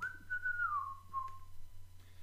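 A single person whistles a short melody from a Christmas film, the tone sliding gently downward over a few sustained notes, with a faint low hum underneath and no talking.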